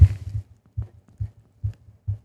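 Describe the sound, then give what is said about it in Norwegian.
A heartbeat picked up by a microphone held tight against the chest over the heart: deep, muffled low thumps repeating steadily about every 0.43 seconds, each a soft double pulse, with no talking. “Det er hjertet mitt.”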